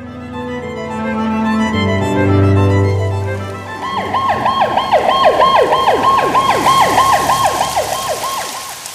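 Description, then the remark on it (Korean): An ambulance siren wails urgently and loudly as the ambulance arrives at an apartment entrance seven minutes after the emergency call, first with a low sustained horn-like tone, then switching at about four seconds into a rapid, repeating yelp that sweeps up and down continuously. No one speaks. “구급차의 사이렌이 다급하게 들려왔다.”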